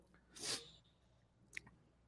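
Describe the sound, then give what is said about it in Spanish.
A single forceful sneeze bursts out with a sharp hissy blast, then fades into near silence, broken only by a faint brief click a second later. “Este, acá se me viene el estornudo.”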